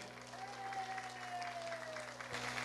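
Steady applause from a crowd for state deputies in São Paulo, a dense wash of clapping that holds at an even level for a few seconds, with a faint tonal hum running underneath.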